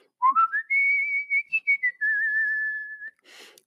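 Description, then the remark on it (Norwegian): A person whistles a short melody alone, clear: a few quick rising notes, then long sustained tones that step gently up and down before ending with a breathy puff. “Og jeg sitter her alene og må både plystre og gjøre avslutningen uten Markus.”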